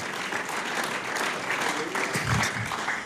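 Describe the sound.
An audience applauds for God in a steady, dense wash of clapping that holds at an even loudness throughout, with a few low voices murmuring underneath.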